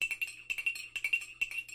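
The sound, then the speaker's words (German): Small, bright clinks of porcelain coffee cups as coffee is served ring out in a quick, irregular series, each a short high ting with a soft ringing tail, with a faint steady hum underneath and no voices. “Wer möchte noch Kaffee? Ich nehme noch ein Tässchen.”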